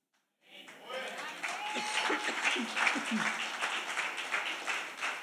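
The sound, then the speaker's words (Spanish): An audience bursts into sustained applause after a brief silence, a dense wash of many hands clapping that holds steady for several seconds, with faint voices and murmurs mixed in. “Eso, si aplauden me ayudan a toser.”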